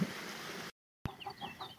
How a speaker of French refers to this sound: Donc j'ai mis le grain, là je vais ouvrir euh, la trappe et... Oh là, elles m'ont entendu. Les poules vont sortir et puis voilà. Salut les filles On va ouvrir la grande porte aussi. Oh, il y a le coq.